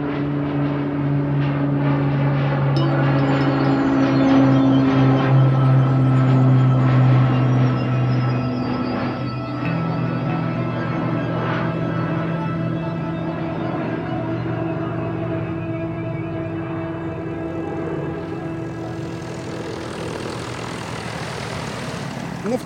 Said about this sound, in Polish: tej chwili widzimy, że dwa statki powietrzne szykują się do, do startu. Za chwilę samolot da 20 a, już odpalił, uruchomił. Za chwilę wjedzie na drogę kołowania i uda się na drogę startową.